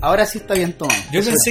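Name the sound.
glasses clinking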